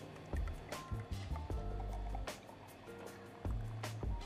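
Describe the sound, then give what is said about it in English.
A freshly released beer is cracked open and poured into a glass: a few sharp cracks and fizzy hisses over a steady glugging stream of liquid that rises and falls. The beer has a yellow haze. No one talks. “so we might get straight into cracking it.”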